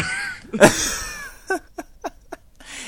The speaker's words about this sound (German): du musst echt was gegen deinen Husten tun.